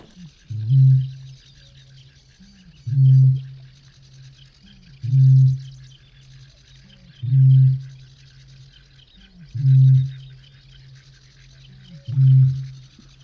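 A Eurasian bittern gives a deep, low booming call six times at steady intervals of about two seconds, each hollow foghorn-like boom swelling and fading, with faint birdsong and insect hiss in the background.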